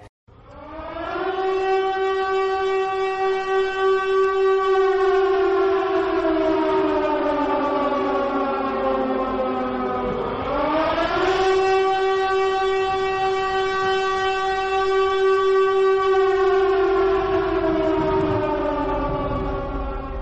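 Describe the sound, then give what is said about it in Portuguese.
A loud, sustained siren wails for about twenty seconds, its pitch sliding slowly down, then sweeping back up midway before holding steady again, with no voices present. “Spoilers! Toca a sirene.”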